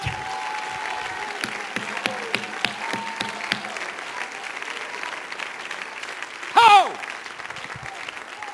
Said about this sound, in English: Clap your hands, all ye people, and lift up your voice and shout unto God